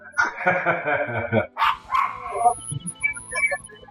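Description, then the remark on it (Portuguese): A dog barks loudly right up against the microphone, a burst of harsh, close barks followed by shorter yips and whiny yelps over a few seconds. “O, o, o Thiago deixou o cachorro no microfone.”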